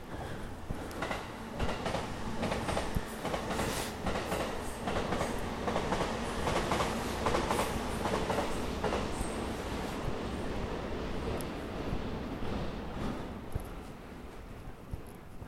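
An electric train rumbles past on its rails, a loud, steady roar with rhythmic clacking from the wheels, fading slightly as it moves away toward the end.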